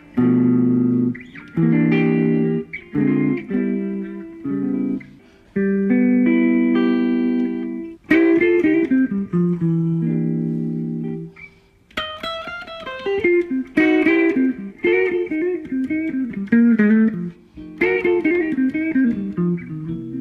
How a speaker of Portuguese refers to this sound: Vamos ouvir um pouquinho aqui do timbre dessa guitarra maravilhosa.